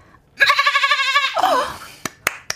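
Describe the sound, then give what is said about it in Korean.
A person's voice imitates a mother goat's bleat: one long, loud, quavering "maaa" trailing off, followed by a few sharp clicks. “이거 방금 엄마 염소였어요.”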